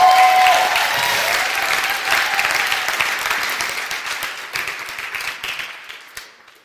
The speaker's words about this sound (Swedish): Kan vi ge henne en stor applåd?